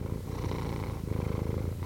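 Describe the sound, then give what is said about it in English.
A cat purrs steadily, a low rumbling vibration that pulses in a continuous rhythm with no voices or other sounds. “The answer Pretty is uh, sure. a cat purring.”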